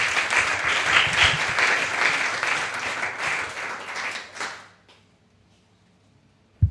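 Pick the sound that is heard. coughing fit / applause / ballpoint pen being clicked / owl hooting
applause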